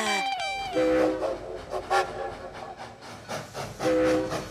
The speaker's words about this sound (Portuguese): A aventura começou logo no comboio.